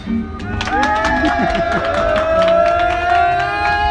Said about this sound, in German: Tatsächlich! Du hast es geschafft. Unfassbar, da Das war dein Applaus